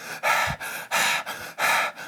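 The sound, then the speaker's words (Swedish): Heavy, rhythmic panting, with about five or six loud breathy gasps in quick succession, each in-and-out breath rough and forceful, imitating someone out of breath from hard cardio training. “Gud vad obehagligt när du sitter och flåsar i podden.”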